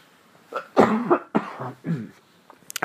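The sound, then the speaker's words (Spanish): A series of harsh coughs in quick bursts, four or five in a row with short pauses, followed by faint rustling clicks, and no talking. “Ah, ya ven que les dije que tenía tosecilla.”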